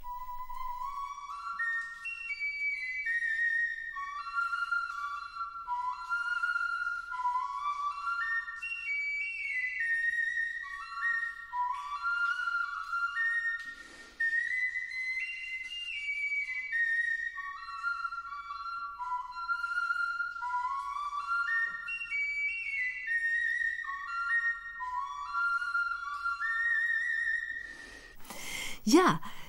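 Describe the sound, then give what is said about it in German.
A replica Ice Age flute, played inside a cave, plays a breathy, wandering melody of stepped notes, solo and steady for nearly half a minute, ending with a short burst of noise. “warum haben wir so viel Flöten? gefunden in den Höhlen”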